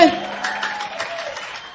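Audience applause: a dense, steady patter of many hands clapping together at moderate loudness, holding for under two seconds and easing off slightly toward the end.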